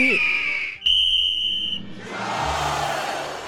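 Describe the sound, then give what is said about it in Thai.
A referee's whistle shrills in two blasts, signalling an eagle and a wren to start a flying race, the second blast a steady, piercing tone lasting about a second, followed by a swelling rush of crowd-like noise. “เมื่อกรรมการได้เป่าสัญญาณให้ทั้งคู่ออกบิน”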